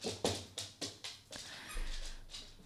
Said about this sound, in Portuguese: Minha cadela acabou de agarrar no brinquedo que apita.